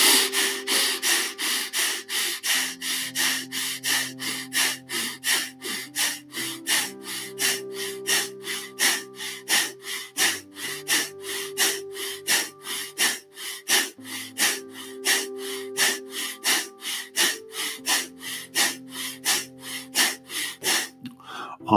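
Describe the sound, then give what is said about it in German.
Rapid, forceful bhastrika bellows breathing: sharp, evenly spaced in-and-out breaths pumping at a brisk, steady rhythm for about twenty seconds, loud, over soft sustained background music. “So, die gleiche Arbeit auch hier bitte in Bastrika. Noch einmal zur Reinigung und zur aufsteigenden Energie.”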